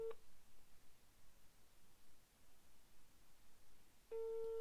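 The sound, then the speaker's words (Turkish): A telephone ringback tone from an outgoing call to a guest's phone: a steady electronic tone sounds briefly at the start, followed by a long quiet gap, then resumes near the end, moderately loud and unaccompanied by speech. “Çalıyor şu an.”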